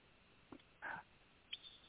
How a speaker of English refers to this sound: I've got a couple of barking dogs here.